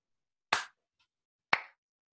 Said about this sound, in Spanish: un aplauso. Una, dos, tres.